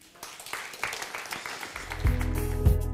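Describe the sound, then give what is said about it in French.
An audience claps together in a dense, steady burst of applause for God during a church service, and partway through a low, sustained musical tone swells in beneath the clapping and grows louder. “Donc on peut applaudir Dieu.”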